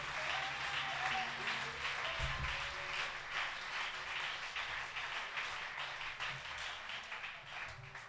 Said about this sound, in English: Clap your hands and give God praise before you're seated.